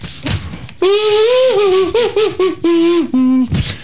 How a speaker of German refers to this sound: Übrigens, ich habe diese Woche gelernt, auf dem Schweinekamm zu blasen. Moment mal.